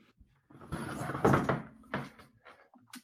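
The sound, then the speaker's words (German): A window or door is pulled shut to keep out Berlin street noise, with a second of rattling, sliding movement ending in a solid clunk, followed by a few softer knocks. “wir wollen dich ja umso besser verstehen und deswegen sperren wir den Berliner Lärm lieber mal aus.”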